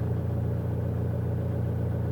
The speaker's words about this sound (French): Mais il n'y avait rien d'autre que le ronronnement de mon moteur.